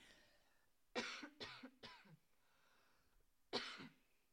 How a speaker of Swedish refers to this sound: Nu måste jag mm. hosta mm. lite, jag ber om ursäkt. En liten mikropaus, ett ögonblick.